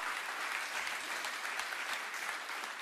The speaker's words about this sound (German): Ah, da ist sie. Ein Beifall für sie.